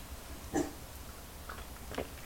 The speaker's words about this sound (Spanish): Ya se refrescó el cafecito, así que me voy a dar rápidamente el primer sorbito del día.